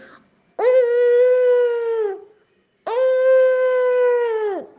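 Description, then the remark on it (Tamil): A wolf howls in pain after falling into boiling water, crying out twice, each cry a long, loud, steady mid-pitched wail; the second is a little longer and drops away at the end, with a short silence between them. “இந்த ஏறின ஓனாய் குதிச்சம்போது நேராக போய் அந்த தண்ணிலேயே கொதிக்கிற தண்ணியில் விழுந்து ஆ ஆன்னு அலறுச்சு”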